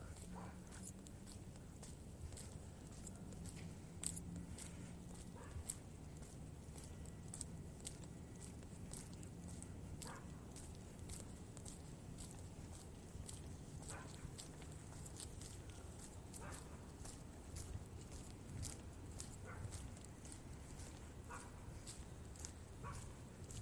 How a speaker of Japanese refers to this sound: 公園ですね公園の夜ですね、まあ、時刻は23時57分です結構遅い時間ですね誰もいないのかなそんなことはないか犬の吠える声が。